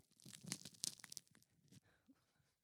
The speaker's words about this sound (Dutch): even ASMR, jongens. Ik weet niet of jullie weten wat het is, ASMR. Ik weet de afkorting. Maar we gaan dus nu even lekker brood breken.